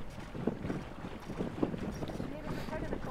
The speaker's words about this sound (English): So while we wait on the wind to pick up, we're going to head out on a couple of boats to sail out into the harbour where the racecourse is. Life jackets on and we're off to sea.